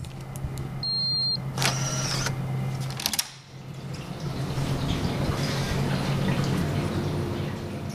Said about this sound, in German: Dieses Blubbern im Hintergrund, so klingen Behälter mit Wasser, in denen das Team Schwämme im Labor für das Forschungsprojekt züchtet.